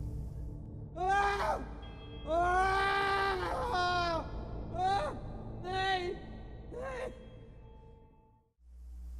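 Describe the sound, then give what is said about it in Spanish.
A person screams in horror while walking through a forest behind a guide, letting out a series of anguished, high-pitched screams and wails, about six strained bursts of rising and falling cries, loud, with short gasping pauses between them. “Con mi primo gritando de horror, caminé tras el guía.”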